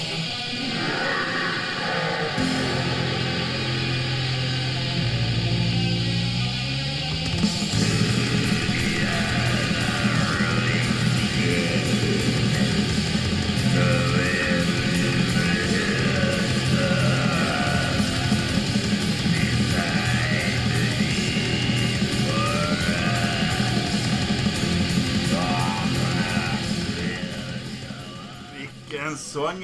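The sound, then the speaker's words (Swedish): Black metal with dense, distorted guitars and rapid, relentless drumming, a harsh screamed vocal riding on top. After a slower, murkier opening, the wall of noise stays loud and unbroken until it cuts off. “det här var …, …”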